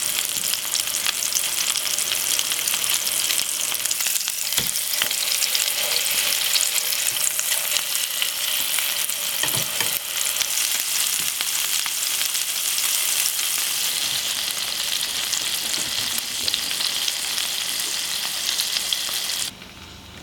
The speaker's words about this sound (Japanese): 今朝はお肉を刻んで作る粗挽きハンバーグのいい音